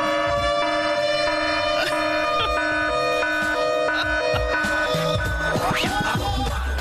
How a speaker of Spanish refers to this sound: La alarma, ¿eh? ¿No? Salte las alarmas, ¿eh?